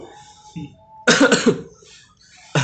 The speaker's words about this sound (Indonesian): Tuh, batuk lagi. Aduh.